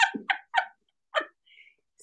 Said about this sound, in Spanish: ¡El ganso!